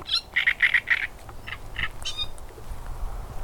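A small brown reed warbler chatters in quick, harsh bursts at Lake Milada, a former quarry lake near Chabařovice, Czech Republic, a rapid run of repeated notes followed by a few scratchy phrases, clear over faint outdoor background noise.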